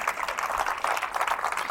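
An audience gives a loud round of applause to the Lord, the Holy Spirit: a dense, steady wash of many hands clapping at once with no pause, holding an even, moderately loud level throughout.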